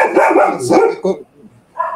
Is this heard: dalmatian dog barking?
yes